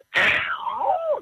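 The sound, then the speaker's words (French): A person imitates a vulture's breathy cry: a sharp, hissing rush of air that slides into a raspy, descending screech, loud, lasting about a second. “Donc, il y a beaucoup de cris de respiration comme les vautours à l'intérieur.”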